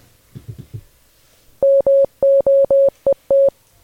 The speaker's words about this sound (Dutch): de bedoeling is dat de luisteraar gewoon even de Morsecode moet vertalen